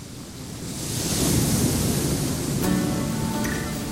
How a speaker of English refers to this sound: Ah, yes, you're on a beach inhaling salty air and warming yourself in the spring sun.